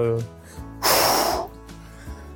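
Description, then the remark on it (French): A voice imitates the blowhole exhale of a bottlenose dolphin with one sharp, loud, breathy puff lasting about half a second, framed by brief murmured vocal sounds. “Et là j'ai commencé à entendre les dauphins. On, les entend directement avec le souffle de l'évent.”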